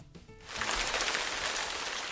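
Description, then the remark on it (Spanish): Heavy rain pours down at a monastery in a steady, dense hiss that swells in after a brief quieter moment and then holds loud without a break. “Pero arreció la lluvia y tuvimos que subir corriendo para refugiarnos en el pequeño claustro de la entrada.”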